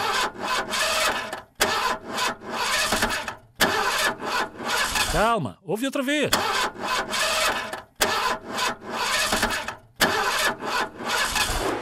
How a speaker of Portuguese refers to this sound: É isso mesmo. É um carro que não pega. Espero que não te aconteça em breve. É uma chatice.